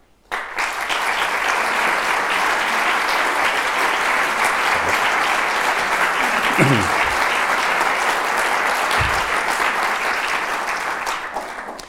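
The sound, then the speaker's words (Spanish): Sustained applause from a large audience welcoming actors Karina Garantibá and Francesco Carril onto the stage at a talk on Calderón, a dense steady clatter of many hands clapping that starts abruptly and holds at an even, loud level for about eleven seconds. “acompañado por estos dos grandes actores de la escena española, Karina Garantibá y Francesco Carril, que van a acceder al tablado y para los que pido un aplauso.”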